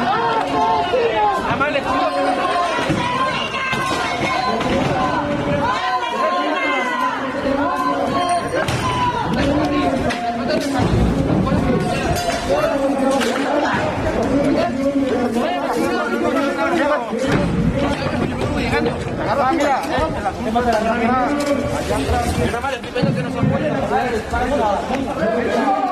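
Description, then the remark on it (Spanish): A loud crowd of protesting teachers at the Centro Cultural Santo Domingo in Oaxaca, during the wedding of Elba Esther Gordillo, fills the scene, with many voices shouting and chanting over a steady roar of babble and scattered bangs, continuous for the whole stretch. “Así se escuchaba en Oaxaca cuando se celebraba esta boda.”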